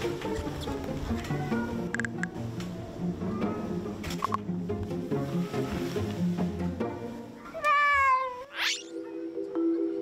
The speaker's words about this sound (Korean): 국내에서 7년 만에 조류 인플루엔자에 걸린 고양이들이 발견됐습니다. 예, 사람들과 가까이 지내는 동물이라 걱정이 되실 수 있는데 크게 불안해할 일은 아니라고 합니다. 오늘 모바일 디슈 고양이들의 독감 검사 현장으로 가봅니다.